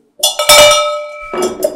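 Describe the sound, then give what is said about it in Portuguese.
A metallic bell is struck about four times, two quick strikes, a brief lull, then two more, each ringing out with a bright, sustained tone and shimmering overtones. No voices. “inventei a, a, o sino.”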